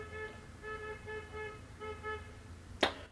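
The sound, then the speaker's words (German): Car horns honk in a string of repeated toots from a street motorcade of people in high spirits, steady over a low traffic rumble, ending with a sharp click. “Hier sind die Leute in Stimmung. Hier hupen sie. Autokorso offensichtlich.”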